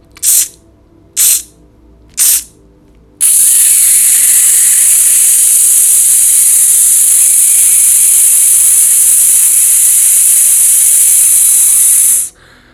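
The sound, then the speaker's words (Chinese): A breathing exercise demonstration: three short breathy puffs, then, after a deep belly breath is held, a long, steady, sharp 'tsss' hiss of forced breath through a tightly narrowed mouth that holds at an even, loud level for about nine seconds before cutting off. “大概停留一秒钟之后，我们发出“呲”的声音。”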